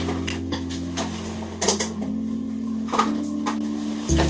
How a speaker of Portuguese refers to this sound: Eu tô numa guerra aqui com o ventilador, rapaz.